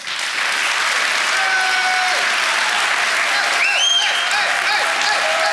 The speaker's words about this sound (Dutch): Ga ik nu applaus vragen voor de twee gasten van vandaag. Dat zijn Caroline van der Plas.